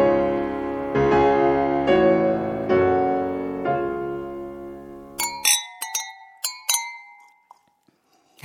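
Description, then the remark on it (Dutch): Sustained musical chords play for several seconds, then stop, followed by about half a dozen sharp clinks of large drinking glasses knocking together as they are taken, each ringing briefly before fading. “die glazen genomen? Die wou ik nou eens nemen, ja.”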